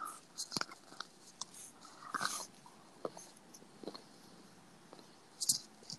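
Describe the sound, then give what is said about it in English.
Crunchy biting and chewing of crispy chicken tenders, a few sharp crackling bites spread irregularly among quieter chewing sounds, with no one talking. “So let me take a bite here. See if I can get some ASMR action.”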